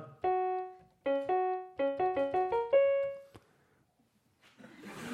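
The opening phrase of Eine kleine Nachtmusik played a semitone lower, as all music once sounded: bright, sustained string notes with quick repeated figures, loud, then silence and a faint rustle at the end.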